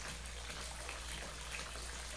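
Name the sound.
running water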